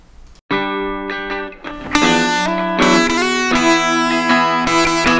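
A loud rock song with gritty, distorted electric guitar chords, driving steadily after a brief pause near the start, with a full band sound and no talking.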